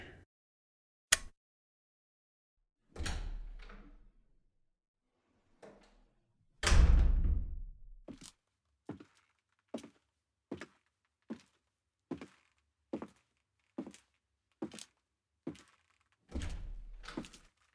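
A sharp light-switch click as a person switches off the room lights, then a heavy door swinging shut with a solid thud as they leave the room, followed by a steady run of hard-soled leather shoe footsteps ringing out in an otherwise quiet, echoing space.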